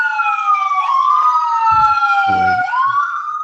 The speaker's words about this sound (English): hold on, there's sorry, there's a, let me let the siren go by.